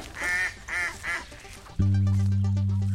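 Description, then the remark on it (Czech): A mallard drake by a reservoir gives three raspy, nasal quacks in quick succession as a man offers it yesterday's sweet Christmas bread. A loud, steady droning tone then abruptly takes over and continues to the end. “Zelený kačer už tady na ně čeká.”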